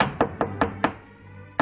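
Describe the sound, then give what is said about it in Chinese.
Knocking on a door: four quick, evenly spaced hollow raps, a short pause, then a single final knock. Fairly loud and sharp, with no voices. “黄昏的时候，它扮成一个老婆婆，来到三个女孩住的地方，敲了两下门。”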